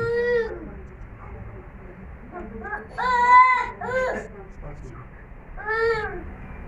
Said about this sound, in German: So, jetzt müssen wir unseren Geist konzentrieren auf das, was ich sage, und das Kind macht dann auch gewisse Geräusche. Also das ist eine Übung des Geistes jetzt, zu konzentrieren.